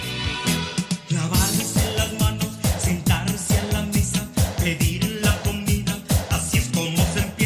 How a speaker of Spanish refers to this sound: ese cantante y payaso venezolano … que de desde el principio de los tiempos nos compuso una canción. Escuchen esto